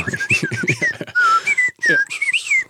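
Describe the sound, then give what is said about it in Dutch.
A person whistles a playful imitation of birdsong, with quick rising and falling chirps and warbles in a bright, high pitch, repeated in short bursts over a couple of seconds. “Vogelgeluidjes zijn wel leuk.”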